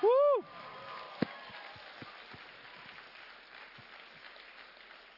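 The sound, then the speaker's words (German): An audience breaks into steady applause for single mothers after a brief, loud cheering shout at the start, the clapping continuing as a dense wash of many hands with a few sharper claps standing out. “Alleinstehende Mütter, gebt denen mal einen Applaus.”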